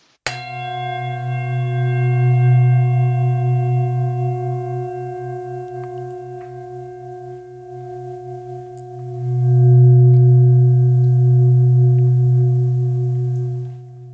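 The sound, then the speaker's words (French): A singing bowl is struck once like a gong to open a session, then rings on for over ten seconds with a low, wavering hum and bright overtones, swelling again before slowly fading. No voices. “Je fais un petit coup de bol pour ouvrir la séance, comme un gong.”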